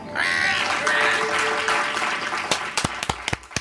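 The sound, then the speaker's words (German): A crowd applauds in a dense, steady wash of clapping with some tonal cries mixed in, then it thins out into a handful of sharp, separate hand claps before stopping. “Da könnt ihr jetzt mit euren dummen Händen ruhig mal Applaus klatschen.”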